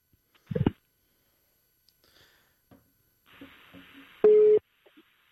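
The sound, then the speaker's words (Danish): A single steady electronic telephone tone sounds loudly for a moment as a radio host phones the next guest, followed by a click and faint line noise, with a burst of handling noise earlier and no talking. “Vi øh, ringer lige den øh, øh næste gæst op og, og introducerer hende og får hende med i samtalen også, så vi kan komme i godt i gang, ikke?”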